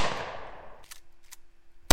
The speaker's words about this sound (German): Acht Schüsse. Keiner trifft gewollt?